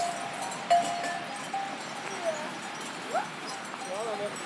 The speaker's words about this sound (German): Was für ein Glück, dass ich noch so viele Kuhglocken besitze. Ein paar davon haben wir jetzt gehört.